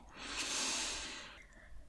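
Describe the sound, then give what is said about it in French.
A single long, deep breath drawn in through the nose while inflating the belly during a guided breathing exercise, a soft airy hiss that swells and then fades over about a second, quiet with no talking. “Allez-y. Inspirez.”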